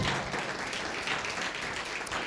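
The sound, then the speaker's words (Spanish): Steady applause from a standing church audience welcoming a pastor, a dense, continuous patter of many hands clapping at an even level throughout, with no voices standing out. “En esta hora pónganse de pie, quiero, quiero que reciban con un fuerte aplauso a nuestra hija”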